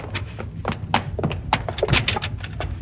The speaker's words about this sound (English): Yeah, but what's that thunder? That's not thunder, partner. That's cattle on the move.